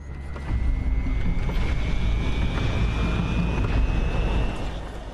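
A loud, steady roar of rushing air from powerful wind tunnel fans pushing a person upward against gravity kicks in after a brief moment and holds constant, with a thin high whine slowly rising underneath.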